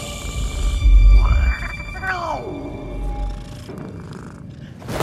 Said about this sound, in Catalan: Que t'he dit que marxis i no miolis que si el senyor sap que sóc aquí, serà a mi a qui mati a bastonades.